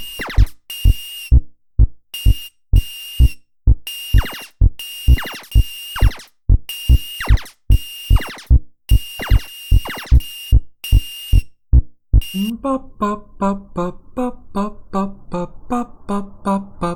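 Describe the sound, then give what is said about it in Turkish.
Fast, repetitive chiptune background music of a retro video game, with sharp electronic beeps and a steady pulsing beat, switching partway through to a quicker, denser bleeping pattern as the game level speeds up. “Müzik hızlandı farkındaysanız çünkü level hızlandı.”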